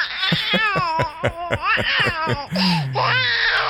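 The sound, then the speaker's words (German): A baby cries and fusses in a continuous stream of wavering, high-pitched wails and short sobbing bursts, loud and unbroken for a few seconds. “Das Gute ist, dass dieses Baby, was wir da hören, das können wir einfach runterregeln.”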